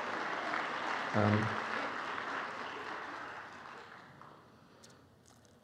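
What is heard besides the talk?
audience clapping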